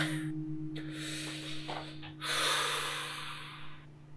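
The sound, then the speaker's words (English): A few long, airy breaths drawn in and let out slowly, a male taking deep, slow breaths to get his composure back, with a faint steady electrical hum beneath. “I think he um takes a few minutes and he is deep, deep, slow breathing, just like trying to get his composure back.”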